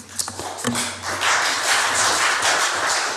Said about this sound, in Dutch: Er klinkt applaus in de Statenzaal.